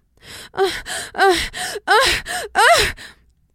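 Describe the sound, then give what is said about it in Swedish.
A voice imitates a rapid series of breathy, rising gasps and moans, the way porn teaches that women should breathe during sex, about seven in quick rhythmic succession, fairly loud with no other sound around them. “Och då säger hon att så här, i porr får vi lära oss att kvinnor ska andas så här när vi har sex.”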